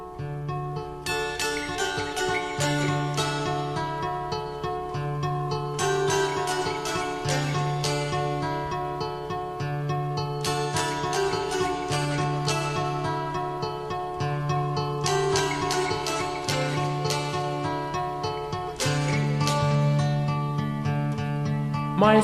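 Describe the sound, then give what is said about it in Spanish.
A bright, twangy dulcimer picks out a gentle melody over steady low sustained notes, playing alone and clearly throughout as the instrumental intro of a 1966 pop song B-side, with no voices. “creo que es en Cuenca, eh, o sea, es en los Apalaches americanos, pero en Cuenca también se, se toca y bastante, y además son bastante expertos en la fabricación del Dulcimer.”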